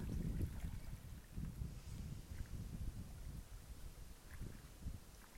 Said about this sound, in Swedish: Och nu undrar varför tystnad, så är det för att jag lyssnar på vattnet. Det är verkligen rogivande.